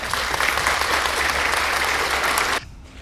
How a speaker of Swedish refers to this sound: Och där måste jag ju säga att eh, där var ni ju jätteduktiga, så jag ger en applåd för det.